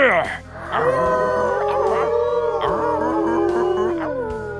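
Wolves howl together in long, overlapping wails that rise and fall in pitch, loud and unbroken from start to finish, with no talking.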